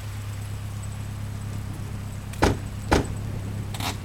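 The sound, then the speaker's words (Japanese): A vehicle engine idles with a steady low rumble, then three sharp clunks land about half a second to a second apart, like car doors opening and shutting, as several black cars pull up at the Kanazawa Station rotary in front of a terrace and several tough-looking men get out. “黒塗りの車がテラス前の金沢駅ロータリーに何台か横付けしたかと思えばそこからこわもての男たちが数名おり”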